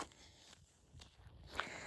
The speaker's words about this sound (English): You can hear possibly my feet that are crunching on the dirt even as I as I record this.